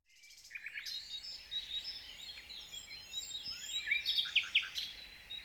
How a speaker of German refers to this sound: Doch bald ist das Gezwitscher der Vögel so laut, dass ich freiwillig aufstehe.